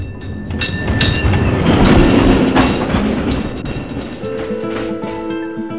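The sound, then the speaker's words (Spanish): A tram rolls along its rails with a steady rumble and rattling clicks, and a thin electric whine and metallic squeal rise near the end. No one speaks. “¿Sabían que en 1897, en un 22 de abril como hoy, comenzaba a circular el primer servicio de tranvías eléctricos de Buenos Aires?”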